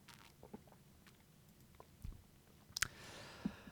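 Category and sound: human body sound, sipping water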